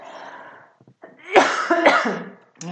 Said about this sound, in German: mein Husten ist immer noch nicht weg.